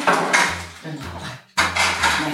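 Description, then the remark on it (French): Snack dishes clatter as they are set down on a table, a few fairly loud knocks and clinks of crockery arriving in quick succession, with a brief pause midway. “Je pose le petit goûter là.”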